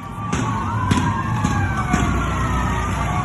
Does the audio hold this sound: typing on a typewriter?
no